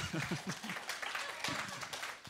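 A few people clap in a steady, scattered patter for a couple of seconds, with a voice briefly audible underneath at the start and midway through.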